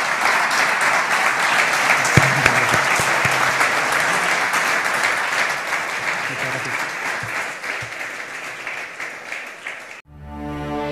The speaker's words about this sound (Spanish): Por favor, les pido un aplauso y muchas gracias.